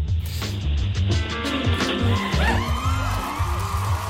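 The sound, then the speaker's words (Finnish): A firework rocket shrieks with a rising, then falling whistle over a loud, dense rush of crackling noise and crowd-like clamor, sustained throughout with a few sharp pops. “Yleisö ja villiintyy, se on raketti.”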